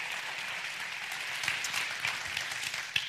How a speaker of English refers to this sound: So, would you guys just help me give it up, make some loud noise as we welcome